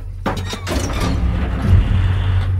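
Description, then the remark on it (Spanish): A jammed door in a huge basement beneath a prison's main building is forced open with an iron bar, taken from the floor and used as a lever: two sharp, loud cracking impacts, then a heavy low grinding and scraping rumble that continues to the end. “La puerta estaba trabada, así que tomé un fierro que estaba en el suelo y lo usé de palanca para abrirla.”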